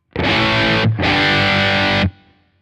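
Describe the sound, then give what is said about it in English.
A loud, heavily distorted electric guitar tone from an old-school amp profile loaded in Rig Manager rings out in two sustained chords, separated by a brief gap, with a thick buzzing crunch that cuts off abruptly and leaves a short fading tail. “Same sound, mm -hmm. but with the right settings.”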